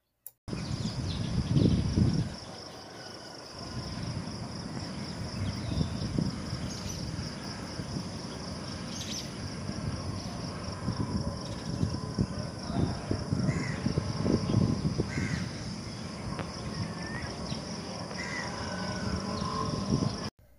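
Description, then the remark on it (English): Steady outdoor ambience at sunrise, with crows cawing now and then over a constant hiss of insects or other activity and occasional low rumbling swells, no one speaking. “That was the pre dawn audio now the sun is rising.”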